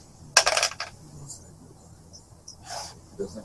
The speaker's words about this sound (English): So go ahead and make your attack roll with a uh, penalty dice. since you guys have cover.